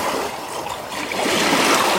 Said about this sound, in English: Watching how the rocks and the waves work together. The rocks don't resist the waves. They take them.